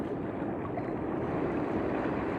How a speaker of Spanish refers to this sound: Respiramos profundamente, sentimos las olas del mar,